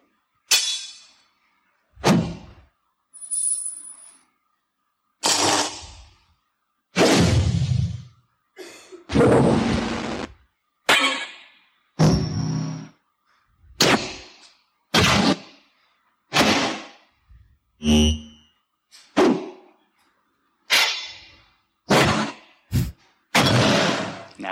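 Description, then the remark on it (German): A string of separate video game sword sound layers plays one after another with short pauses: sharp whooshes, metallic clangs and heavy thuds, each a loud, close burst, with no talking. “Now, what this video is, is me walking you through every single layer and playing them all one by one, and then you'll hear them all together in the end.”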